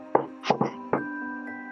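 A patterned secret knock on a door: a single rap, then two quick raps, another single rap, and a fainter final tap, over a steady low hum.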